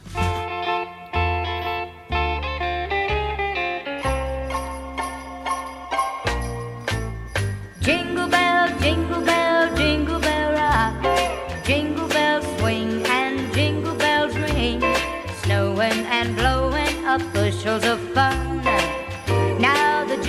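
An upbeat rock and roll Christmas song plays loudly with a steady bouncing bass and bright jingling bells, continuous throughout with no talking over it.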